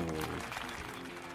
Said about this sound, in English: so, ladies and gentlemen, if you're listening to this episode, let's give a round of an applause